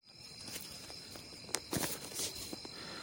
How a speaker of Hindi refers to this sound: वैसे अगर आप बैकग्राउंड में आवाज़ सुने ना तो बहुत सारे झिंगूर की आपको आवाज़ सुनाई दे रही होगी रात का समय है और रात में जो झिंगूर बोलते हैं ना उनकी आवाज़ बहुत ही अच्छी और मधुर होती है